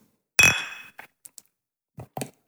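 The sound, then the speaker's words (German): Two glasses clink together once in a toast, loud, with a bright ring that fades over half a second, followed by a few soft knocks and taps. “In diesem Sinne, Prost”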